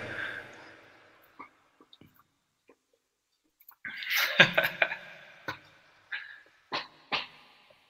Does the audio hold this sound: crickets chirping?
no